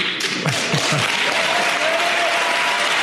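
audience applause

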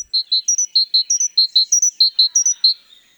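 great tit song

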